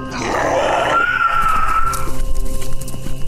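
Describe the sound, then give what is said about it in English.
Two pale, smooth-skinned monsters let out a loud, harsh roar with a shrill, screeching edge that sustains for about two seconds, then trails off into a rough, rumbling fade. No one speaks. “Uh, they both let out a roar and they start sprinting towards you.”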